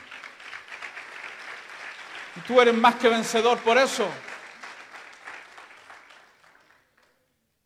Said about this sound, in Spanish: Que alguien aplaude al Señor de la Gloria.